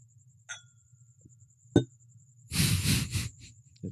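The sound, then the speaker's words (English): A Glencairn glass of rye whiskey clinks against a dynamic microphone during a toast, a brief ringing tap, then a duller knock, followed by a burst of rustling handling noise over a faint steady hum. “Bang it off the microphone.”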